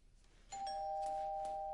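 A doorbell at the front door of a house rings with a bright electronic tone that starts abruptly and holds steady, sustained at a strong level over low background hiss.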